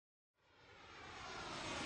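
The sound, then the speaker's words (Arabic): A jet airplane roar rises out of silence and swells steadily louder, a broad rushing engine noise as the aircraft approaches overhead, with no voices. “الطائرة تحلق والرحلة مستمرة”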